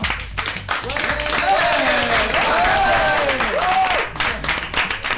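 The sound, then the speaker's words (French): An audience bursts into sustained applause for the staff, dense overlapping clapping that swells and holds steady for several seconds, with a few cheers and raised voices rising over it before it thins out. “Bah, je crois qu'on peut applaudir le staff.”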